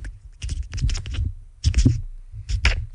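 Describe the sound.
A voice imitates the tiny scratching footsteps of a fly walking on a microphone, producing a dry series of rapid scratchy rustles in irregular bursts with brief pauses.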